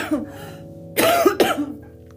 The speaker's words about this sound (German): ich muss husten, Entschuldigung.